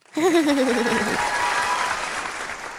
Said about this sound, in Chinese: 掌声鼓励！